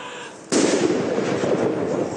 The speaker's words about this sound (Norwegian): Men det var slik det begynte. Med kanonsalutter i februar, den dagen for 60 år siden dronning Elisabeth ble dronning.